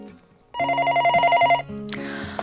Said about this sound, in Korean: 사무실에 전화 오는 소리만 들려도 식은땀이 줄줄 흐릅니다.